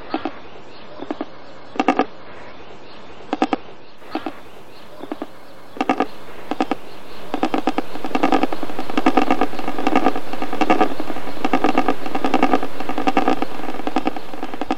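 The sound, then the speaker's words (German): A secretary bird gives a series of harsh, rasping croaks in an uneven rhythm, short pulses at first, then denser and louder bursts over a steady rushing background. “Und vielleicht dann auch mal eine der seltenen Momente abpassen, wo man diese eigentümliche Stimme hört.”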